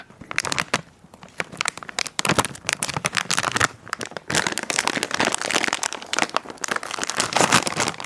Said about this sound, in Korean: 자, 먼저 제가 봉지를 소리 들리시죠? 봉지를 뜯어보도록 하겠습니다.